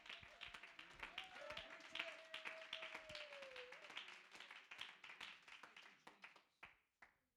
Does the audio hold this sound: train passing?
no